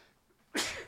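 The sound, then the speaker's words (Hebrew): A single sharp sneeze bursts out after a quiet moment, loud and breathy with a quick explosive release. “לבריאות.”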